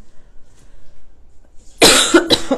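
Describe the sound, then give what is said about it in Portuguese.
After a quiet stretch, a burst of harsh coughing breaks out, two or three rough hacks in quick succession, loud and raspy like the start of a coughing fit. “Ô, gente, a tosse agora agarrou aqui.”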